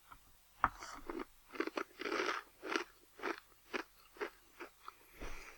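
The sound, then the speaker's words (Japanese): Crisp crunching of a dry Oyatsu Company Baby Star Zeitaku Ramen Maru snack, Matsusaka beef steak flavor, being chewed, about a dozen sharp, bright bites in a steady rhythm, each a short crackly burst, with no talking. “今日のおやつはこちらおやつカンパニー贅沢、あ、ベビースター贅沢ラーメン丸、松坂牛ステーキ味です。”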